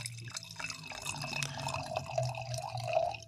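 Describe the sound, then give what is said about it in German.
Wine pours into a glass, a steady gurgling trickle with bright ringing glassy tones that rise slightly as the glass fills, heard alone without talking. “schenkt uns mal ein bisschen ja. Wein ein”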